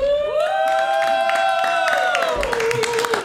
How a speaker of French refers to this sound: On est euh, enregistré devant le public au Club L, évidemment. On applaudit tout le monde.